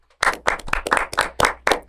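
A short round of applause for a good prediction: steady, bright handclaps repeating at a brisk, even rhythm for under two seconds, with no voices over them.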